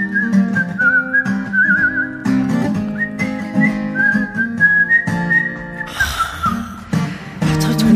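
A man whistles a wavering melody clearly for several seconds, the tune rising and falling over steady instrumental backing music.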